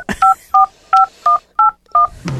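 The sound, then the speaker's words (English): Six short touch-tone telephone dialing beeps in a quick, steady sequence, each a clear dual-tone chirp, loud, used as a brief jingle signalling a call-in question segment, with a soft noise burst at the end. “That noise, folks, that you heard is the signal that it is straight talk.”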